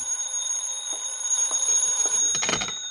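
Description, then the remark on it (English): A telephone rings with a steady, shrill bell tone that carries through the whole moment, fairly loud, with a brief clattering burst near the end and no voices. “Then the phone rang.”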